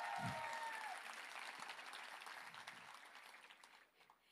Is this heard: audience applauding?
yes